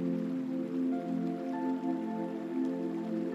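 A steady rush of flowing river water, natural river sounds for a sleep meditation, runs throughout, soft and continuous, blended with sustained calm ambient tones that hum along beneath it. No one speaks.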